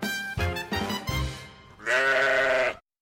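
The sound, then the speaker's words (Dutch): A sheep bleats several times in quick, wavering pulses, then lets out a longer, louder bleat before falling silent, clear, with no one talking. “Het eerste dier dat we hebben gekloond heette Dolly en dat was een schaap”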